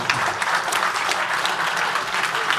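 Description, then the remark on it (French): Sustained applause from an audience, a dense, steady patter of many hands clapping at once, fairly loud, filling the whole moment without any voices. “Oui, oui, on applaudit.”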